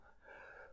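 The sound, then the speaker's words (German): A single short, breathy sneeze bursts out and fades within half a second, fairly soft, with no talking around it. “Gesundheit.”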